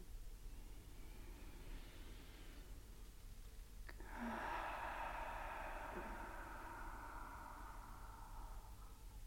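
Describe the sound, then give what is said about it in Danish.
Slow, deep breathing during a guided breathing exercise, breaths deeper than normal: a soft, airy inhale, then a longer and louder exhale that gradually trails off, with no one talking. “Og tag gerne et par lidt dybere vejrtrækninger, end du normalt vil gøre lige til at starte med sammen med mig nu.”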